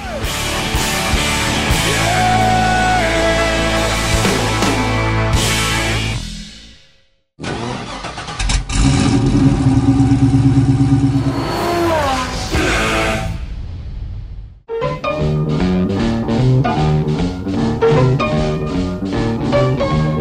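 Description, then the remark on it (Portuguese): A powerful V8 car engine turns over and revs in loud bursts, rumbling deeply between short pauses before roaring up again. “Rocket Oldsmobile 88, precursor do Muscle Car, com seu corpo leve e motor V8.”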